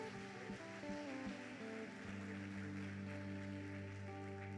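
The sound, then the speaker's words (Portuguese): A church audience claps for the Lord in a steady, dense wash of applause, even throughout, with sustained keyboard chords ringing underneath and no one speaking. “Dê uma salva de palmas ao Senhor.”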